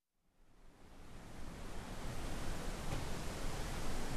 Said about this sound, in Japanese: エレベーターで行ける関白台から間近で見る滝壺は迫力満点だそうです爆音とともに水しぶきがはじける豪快な姿が見られるということなんですが